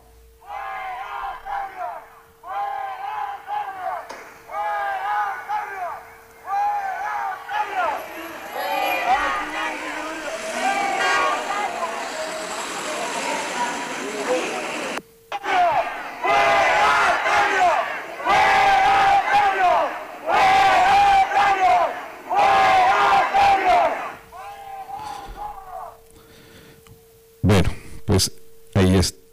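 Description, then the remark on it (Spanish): A large crowd of university students at a protest chants and shouts in loud, rhythmic bursts, voices rising and falling together, with a steady background hum and brief gaps between surges. “Eh, aquí vamos a escuchar lo que están haciendo ahorita en este momento.”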